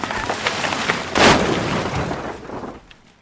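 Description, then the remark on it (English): A loud, clattering crash as a horse-drawn wooden caravan is pulled off the road into a ditch by a horse frightened by a passing motorcar, with a heavy impact about a second in, then rattling debris that fades into quiet. “The horse is frightened and pulls the caravan off the road into a ditch.”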